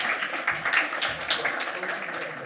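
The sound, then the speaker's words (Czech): A crowd of people applauds steadily, a dense patter of clapping at moderate volume. There are no pauses, and faint crowd murmur may sit underneath. The audience at a church gathering applauds. “Já si myslím, že by to chtělo potlesk.”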